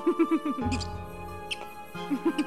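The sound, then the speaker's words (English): A voice imitates a hedgehog snuffling and huffing as it waddles toward someone: quick, rhythmic squeaky puffs, a stretch of low rumbling grunts, then the rapid puffing returns, fairly loud. “The hedgehog shuffled and began making a sound as he waddled in my direction.”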